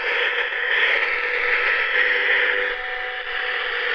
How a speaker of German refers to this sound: Dieser Radioempfänger, der hat äh, äh, Mittelwelle und Langwelle. Und das sind jetzt Störgeräusche, vermutlich von meinem Handy.